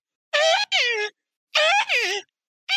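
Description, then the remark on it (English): A voice imitates a trapped rat's wailing: two pairs of loud, high-pitched wails with bending, falling pitch, separated by a short silence and no spoken words. “it sounded like the wailings of a trapped rat.”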